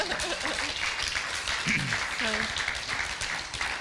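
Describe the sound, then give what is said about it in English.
A crowd claps steadily for about four seconds, a dense, even patter of many hands, with a few voices calling out and talking underneath the applause. “Give her a clap.”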